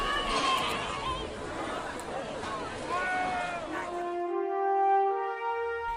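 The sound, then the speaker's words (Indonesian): A noisy crowd of many villagers, overlapping voices clamoring and shouting at once in a commotion, loud, before giving way to a few steady, sustained tones in the final seconds. “Sehingga banyak warga yang makin membuat keributan itu”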